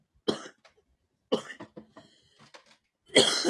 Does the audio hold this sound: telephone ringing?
no